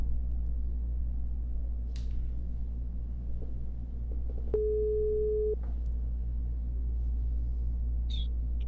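signal or alarm, telephone line tones

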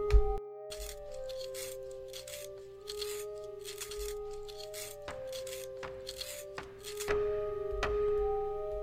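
tool, pencil being sharpened

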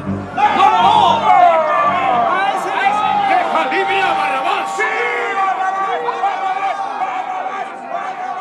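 crowd, crowd shouting

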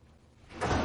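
impact, door slamming shut

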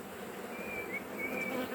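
insect, honeybees buzzing

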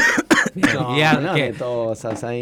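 human body sound, coughing

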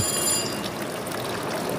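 signal or alarm, mobile phone ringing

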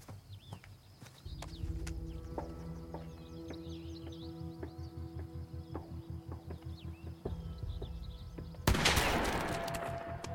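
sound effect, video game gunshots

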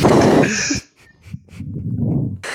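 human body sound, sneeze

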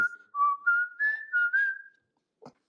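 human body sound, person whistling

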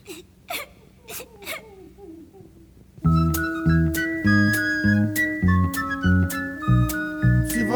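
human body sound, child crying and whimpering

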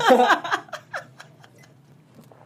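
human body sound, drinking and swallowing water

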